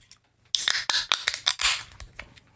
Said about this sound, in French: Donc vous avez compris, c'est une canette.